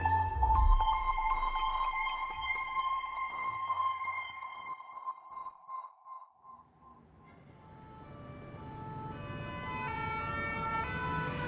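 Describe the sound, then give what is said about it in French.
Emergency sirens from fire engines and police cars wail and overlap at the Place de la Nation in Paris, their rising and falling tones sustained throughout, with a low traffic rumble underneath and no one speaking. “Sur la place de la Nation, les sirènes des pompiers répondent au pimpon des policiers.”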